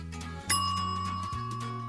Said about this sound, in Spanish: Cuando la cocina queda impecable, la campanilla anuncia que el pastel está listo.